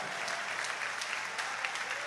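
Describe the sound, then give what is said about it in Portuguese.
An audience at a religious service applauding steadily while giving glory to God, a dense wash of many hands clapping at an even level with scattered sharper claps standing out, no voices clearly audible. “Quem tomar posse já vai aplaudindo e dando glória.”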